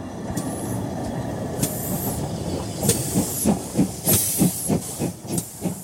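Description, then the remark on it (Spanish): A steam locomotive of a medical train pulls away, heading toward the sugar-mill region, with sharp bursts of hissing steam over a low rumble. Its chuffing beats grow steadier and quicker as it gathers speed. Loud, with no voices. “A propósito del peronismo y el ferrocarril, no podemos olvidarnos del tren sanitario marcha el tren sanitario hacia la zona de los ingenios, donde las tareas de la zafra azucarera determinan la concentración de grandes masas laboriosas.”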